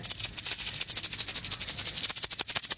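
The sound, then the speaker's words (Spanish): A rattlesnake's rattle buzzes steadily among dry leaves in a forest, a dry rapid hiss of clicks that pulses slightly in loudness and never stops. No one speaks. “De, pronto, entre las hojas secas, apareció una serpiente de cascabel.”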